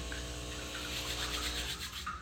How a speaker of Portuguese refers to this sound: Olha só, uma pessoa que sofreu uma injustiça e vive reagindo a minha máquina de café ligando sozinha, na realidade desligando. Não fiquem com medos, não é um ET.